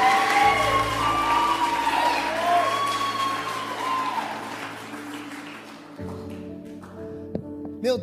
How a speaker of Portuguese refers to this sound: Pode aplaudir, irmão. Pode aplaudir.